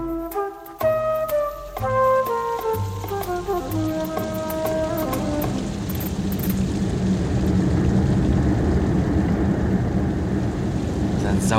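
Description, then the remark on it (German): A few melodic notes play at first, then steady, fairly loud rain takes over, a dense pattering hiss that continues unbroken to the end with no voices. “Seit einer Woche nichts für Regen. Ob das nochmal wieder aufhört?”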